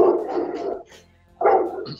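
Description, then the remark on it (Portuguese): A dog named Shark barks loudly, two long, rough barks separated by a short pause, with no one talking. “Tá cachorro tá destruindo aqui alguma coisa.”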